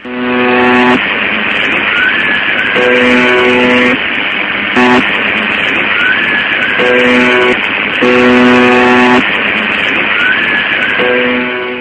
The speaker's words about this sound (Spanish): Es una transmisión, nadie sabe quién maneja esta emisora. Esa emisora todavía sigue funcionando desde 1970, lanzando ese pulso y normalmente no se escucha nada y eh, una persona en el año 2009 logró grabar este pedazo,